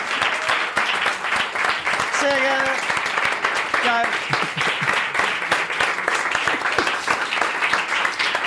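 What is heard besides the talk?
audience applause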